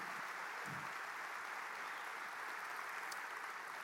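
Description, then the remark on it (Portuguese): A church audience applauds God together, a dense, steady wash of clapping that holds evenly throughout without a break or any talking. “Quem pode dar um aplauso a esse Deus maravilhoso?”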